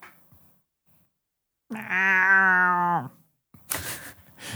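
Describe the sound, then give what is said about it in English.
A person voicing Drunky, a tabaxi character, imitates a cat with one long, drawn-out, loud meow after a brief quiet pause. A short breathy, rustling burst follows. “to which Drunky just meows.”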